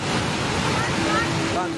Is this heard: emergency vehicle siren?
no